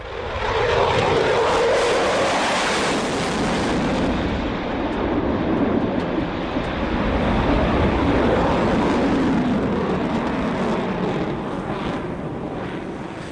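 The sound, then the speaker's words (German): A loud, continuous roar of a military fighter jet in the sky over Israel fills the whole stretch, a broad rumbling wash of engine noise that swells and holds steady as the aircraft passes overhead, with no voices. “And three minutes later in Israel you'll see a jet plane. Ein Kampfjet am Himmel.”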